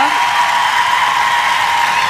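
A live audience applauds, a dense, steady wash of many hands clapping at once, loud and unbroken for about two seconds with no individual claps standing out.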